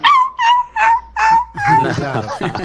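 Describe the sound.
A dog gives four short, evenly spaced barks in quick succession, loud, before a person starts talking.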